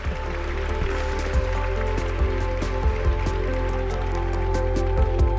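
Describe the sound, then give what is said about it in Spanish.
A steady, crackling patter of audience applause for the man with the camera, dense and even in level, with a few sharper claps standing out over a constant low hum. No one speaks. “un aplauso para el señor de la cámara, ah.”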